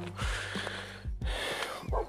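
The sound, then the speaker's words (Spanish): A neighbour's dog barks several times in irregular bursts over a steady background hum with no one speaking. “Bueno, los ladridos del perro del vecino, pero ya ves tú.”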